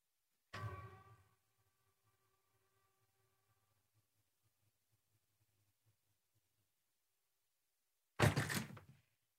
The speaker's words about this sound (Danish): nu prøver jeg lige at høre, åbne vinduet, så man kan høre det, også herinde i studiet.